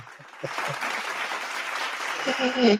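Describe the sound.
A burst of clapping from a small group, dense and steady for a few seconds, with some voices speaking over it and a brief vocal rise near the end.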